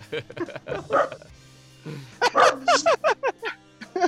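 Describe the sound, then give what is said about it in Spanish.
A dog barks in a quick run of about eight sharp, high yips, fairly loud, following a stretch of people talking. “Nunca, nunca hablas y cuando hablas habla un perro, cabrón.”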